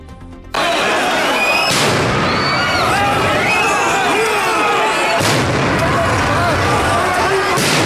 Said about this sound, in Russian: Когда стало известно, что участники акции планируют разбить палаточный городок, их разогнала полиция. При этом было взорвано несколько светошумовых гранат.